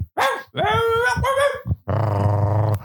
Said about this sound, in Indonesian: Ini anjing yang suka ngisi iklan nih, Doberman.